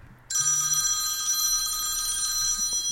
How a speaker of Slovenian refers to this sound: telefon ti zvoni, ampak eh, ne morem verjeti, eh, na zaslonu se je spisalo ime Gregor Golobič.